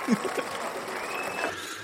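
A steady wash of applause sound effect, dense clapping at an even level for the whole stretch, with a brief bit of voice or laughter near the start.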